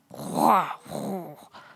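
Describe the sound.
A human voice imitating the grunting of prehistoric people: two drawn-out, growly groans followed by a brief third grunt, moderately loud, with no actual words.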